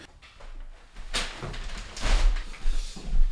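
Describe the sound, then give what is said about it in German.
A door opens and closes, with a sliding, scraping sweep followed by a thud and some shuffling handling noise, no one speaking. “Du, ich, ich hatte jetzt auch die Tür abgestellt.”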